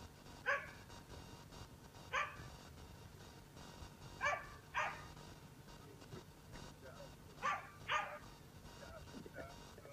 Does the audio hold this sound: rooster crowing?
no